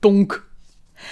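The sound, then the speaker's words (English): A single short vocal imitation of a thrown tennis ball striking something, a clipped, punchy syllable, followed by a brief quiet pause and a soft breathy rustle; it imitates Sherlock throwing a tennis ball at Joan's back. “And that's the sound of him uh, throwing the tennis ball that he was playing with at the at Joan's back.”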